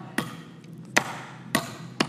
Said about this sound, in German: Ähm, du wendest Energie drauf, Macht drauf, Kraft drauf und äh, wenn du einen Nagel hast und ihn auch triffst, das ist jetzt der heikle Punkt der Predigt, ähm, dann geht der Nagel rein, oder? Ich probiere es mal.